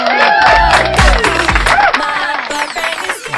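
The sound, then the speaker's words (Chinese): Loud applause and cheering welcoming a female guest, mixed with a bright musical sting with thumping bass beats. It fades gradually toward the end, with no one talking. “三二一，热烈掌声欢迎她！”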